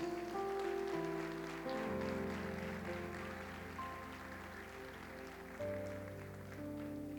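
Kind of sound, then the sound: crowd, audience applauding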